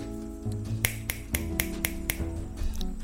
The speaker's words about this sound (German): da gibt es ganz viel Backstein und da habe ich mir auch einen kleinen Zen-Tempel habe ich mir da bauen lassen. Du kannst mal reinhören, es klingt auch ganz interessant, wenn man da schnipst.